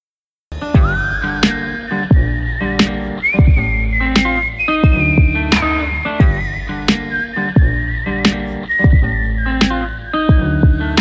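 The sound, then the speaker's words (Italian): A song by an artist from Campania, Italy opens with a loud, sustained whistled melody gliding over a steady beat, with punchy drum hits at regular intervals and a full band underneath, no vocals yet. “Il prossimo pezzo che ascolteremo è un pezzo di un artista che arriva da, dall'altra parte d'Italia, dalla Campania.”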